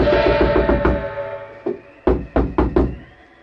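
Heavy, insistent pounding on a house door by a steward demanding to be let in before the New Year: a rapid flurry of thumping blows, then a short pause and four louder, separated bangs that ring out forceful.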